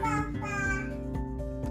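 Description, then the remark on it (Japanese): A young child calls out "Papa" in a drawn-out, high-pitched voice, fairly loud, with a few soft knocks underneath. “すいません子供がちょっとパパって呼んでますけど”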